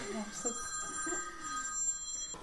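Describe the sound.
A telephone that someone left with its sound on rings with a steady, high electronic trill that carries through the whole moment, fairly quiet, with faint murmuring voices underneath.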